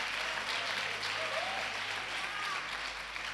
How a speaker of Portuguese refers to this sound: Pode aplaudir o Senhor